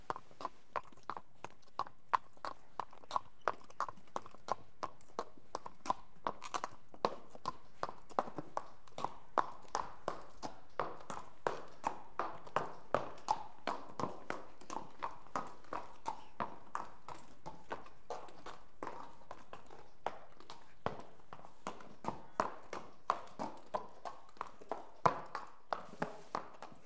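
Steady clip-clop of an old man's horse's hooves striking a hard surface in an even walking rhythm, fairly loud, continuing for the whole stretch with no voices.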